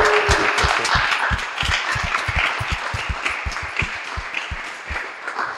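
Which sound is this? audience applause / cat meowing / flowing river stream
audience applause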